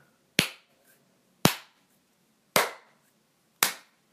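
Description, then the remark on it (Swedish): Four sharp, evenly spaced hand claps, about one second apart, each a loud bright crack with a quick decaying tail. No voices, just the claps. “Emrik, nu klappar jag.”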